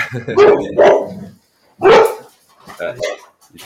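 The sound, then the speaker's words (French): A dog barks loudly, three sharp barks in quick succession followed by softer yips, while a person laughs and speaks in the background. The dog has seen a bird or something. “Ouh là là, ça, c'est mon chien.”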